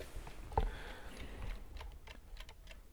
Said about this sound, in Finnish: Meillä on ollut tämmönen herätyskello nyt tässä makkarissa ja se on uskomatonta, miten tämä voi olla niin äärettömän rentouttava tämä ääni.